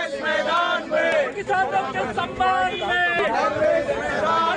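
A large crowd of Congress party leaders protests outside the Madhya Pradesh Vidhan Sabha over falling garlic prices on the first day of the monsoon session. They shout loudly in unison, with overlapping raised voices chanting continuously and energetically, dense, filling the whole stretch without pause.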